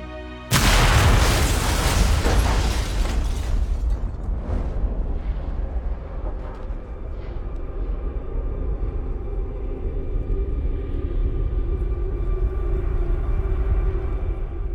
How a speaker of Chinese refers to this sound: 两枚史塔克工业出品的导弹先后击中了旺达家，第一枚已经带走了旺达父母的性命，第二枚也随时可能爆炸。